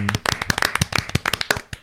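A short burst of applause, with several pairs of hands clapping in a quick, uneven patter. It sounds fairly loud, then fades out after a couple of seconds.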